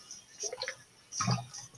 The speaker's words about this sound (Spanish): tomando agua porque ese ron sabe horrible.